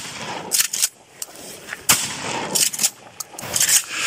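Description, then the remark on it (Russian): A quick series of loud shotgun blasts fired into water, roughly half a dozen sharp, cracking bangs fired at uneven intervals over a steady background hiss, with no talking. “Давай сейчас отстреляю.”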